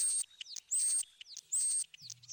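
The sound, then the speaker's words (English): A European starling sings alone, a busy mix of high sustained whistles, sliding chirps and quick clicky notes repeating in bursts, with a brief low buzzy rattle near the end. “Its song is a mixture of clicks, warbles, trills, whistles, and rattles, and it can imitate many other birds in its territory.”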